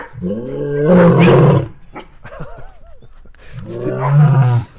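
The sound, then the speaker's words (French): A lion gives two long, deep, rumbling roars separated by a short pause, loud, with faint higher chirping sounds in the quiet gap between them. “En fait, euh, les voisins ont vu sur le lion.”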